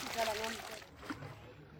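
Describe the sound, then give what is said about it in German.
Water rushes and sloshes steadily down a gold-panning sluice, washing dust over it so gold particles settle in towels laid in it; a dense hissing flow that is strongest at first, then thins out a little with a brief splash near the end. “Der Staub wird über die Wasserrutsche gespült und weil Gold 19 mal schwerer ist als Wasser, setzen sich die Goldpartikel in den ausgelegten Handtüchern ab.”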